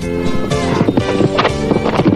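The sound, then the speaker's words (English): A horse whinnies loudly while its hooves clip-clop in an uneven rhythm, with no talking over the sounds. “Now, now, could you get your horse off my foot?”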